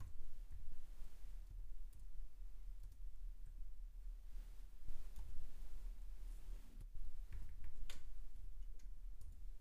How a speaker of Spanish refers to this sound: No sé qué está pasando con mi teclado. Está mal. Perdón. Pero no podía escribir la S por alguna razón.